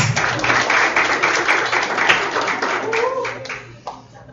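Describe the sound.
An audience at a university event applauds with dense, sustained clapping for about four seconds as an Iranian sheik is invited to join the panel, fading slightly toward the end as a few voices rise over it.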